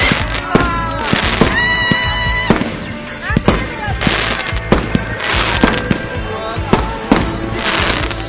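Fireworks bursting by the sea during a holiday beach party: a rapid, dense barrage of loud cracks and booms, overlapping one after another with crackling and whistling trails between the sharper blasts.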